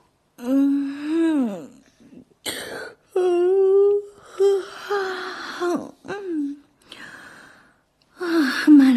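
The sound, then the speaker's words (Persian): A voice acts out the long, drawn-out yawn of a newly bloomed rose in a Little Prince story, with a rising and falling pitch, followed by several short breathy sighs and soft vocal sounds, fairly loud. “گل تازه شکفته بعد از این همه دقت در خدارایی با ناز و ادا خمیازه کشید”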